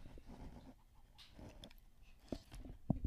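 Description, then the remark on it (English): A dog, Daisy, sniffs in short, breathy bursts with the microphone put up to her, with a few louder snuffles and panting puffs near the end against a quiet background. “Just yeah, sniffs.”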